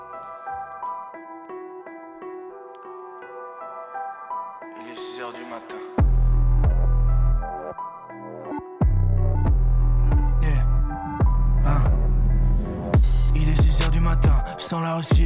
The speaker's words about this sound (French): On va faire une première pause musicale avec un de vos artistes